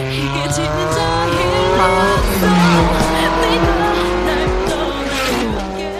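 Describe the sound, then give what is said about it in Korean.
A car passes alongside with a song playing from it: a steady, loud melody with clear sustained notes rides over the low rumble of the engine for several seconds, then eases slightly. “자 옆에 차가 지나갑니다.”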